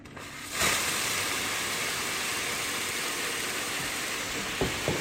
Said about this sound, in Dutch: Wat je nu hoort is het afstomen van de machine om drukloos te maken. En dat duurt even.